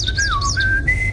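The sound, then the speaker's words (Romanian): A person whistles an imitation of a blackbird's song: a short run of clear, sliding notes that dip, then step up to a higher steady tone, over a low background rumble. “Mirla am exclus-o. Mirla face”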